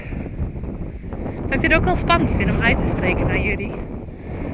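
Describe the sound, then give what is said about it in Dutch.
Steady, loud wind buffeting a small outdoor microphone, a low rumbling roar that runs throughout while a woman talks over it, trying to cover the microphone as well as she can. “Sorry voor de wind.”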